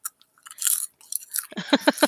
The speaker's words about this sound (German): Popcorn knabbert